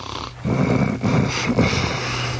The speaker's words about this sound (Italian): e sentite come dorme. È in letargo